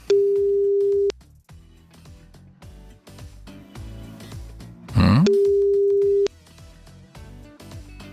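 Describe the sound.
A telephone ringback tone from an outgoing call to a listener, placed with a withheld number, sounds twice, each a steady one-second beep about four seconds apart, loud and clear over quiet background music, with a short grunt just before the second ring.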